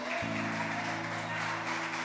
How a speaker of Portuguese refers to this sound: Pode aplaudir bem forte a Jesus.